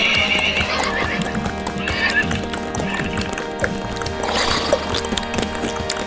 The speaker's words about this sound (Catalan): Que vinguin els cavalls, que vinguin els cavalls amb aquí.